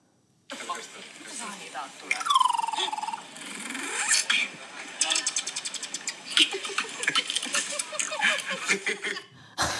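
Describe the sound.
A person's voice imitates a car engine, with revving pitch swoops early on, then a rapid, sputtering, pulsing drone that continues for several seconds before stopping abruptly.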